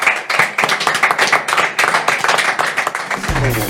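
An audience applauds a speaker, a dense crackle of many hands clapping that holds at a fairly loud level for several seconds before another sound cuts in right at the end.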